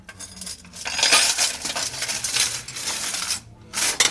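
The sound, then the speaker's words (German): Dishes clink and clatter steadily while being cleaned in the afternoon, a task given by a department store manager; bright metallic and ceramic knocks with a brief pause near the end, then more clinking. No one speaks. “Am Nachmittag erhält Nancy vom Kaufhausleiter die Aufgabe, Geschirr zu putzen.”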